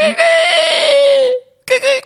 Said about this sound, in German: Oh, kennst du noch das, äh, ja, damals, als ich noch klein war. Ah, ja. Da gab es so Wecker, die haben so äh, Kikeriki gemacht. ja, das, solche Töne gibt es auch heute noch.